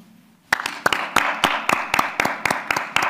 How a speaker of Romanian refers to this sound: Ei ne-au aplaudat pe noi. Credeți că putem să facem amândoi gestul acesta? Să aplaudăm? pe, pe dumnealor?